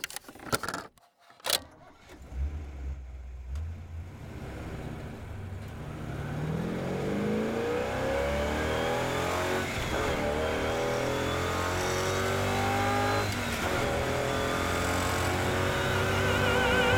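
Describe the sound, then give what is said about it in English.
Keys jingle briefly, then a car engine turns over and roars to life, revving upward in rising, accelerating surges that grow louder and hold strong to the end, with no talking. “make your engine sing.”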